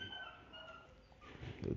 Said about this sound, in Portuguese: Não que eu esteja na minha cozinha agora e meus cachorros estão lá fora latindo, mas tudo bem.